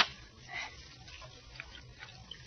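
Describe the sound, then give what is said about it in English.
Faint, gentle lapping of water around a submarine floating on the surface, a soft irregular sloshing with small swells and splashes, heard alone at low volume with no voices. “Hear that faint lapping of water and feel the slight motion from side to side?”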